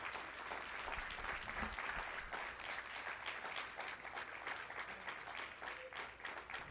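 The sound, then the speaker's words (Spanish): An audience applauds steadily for the Lord during a church service, a dense, even wash of many hands clapping at full strength throughout, with no voices standing out above it. “Vamos a dar ese aplauso fuerte al Señor.”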